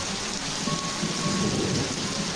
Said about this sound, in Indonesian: Begitu si mbak hilang, Tiba-tiba datang hujan deras.